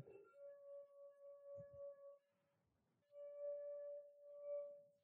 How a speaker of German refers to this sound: Da singt's wieder. Die ja. IKEA-Gläser sind hier noch äh, vorhanden. Ähm, und ihr erinnert euch, dass wir selber erstaunt waren über den Effekt, dass, ähm, dass es einmal etwas höher und einmal tiefer sinkt.